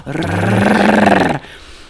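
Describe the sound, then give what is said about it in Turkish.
A person imitates a dog's growl: one sustained, rough, rumbling snarl lasting over a second, loud, then it cuts off abruptly into quiet. “Tabii oğlum sen Bernar köpeğiyim. Yok, aç kalmış kurtlar.”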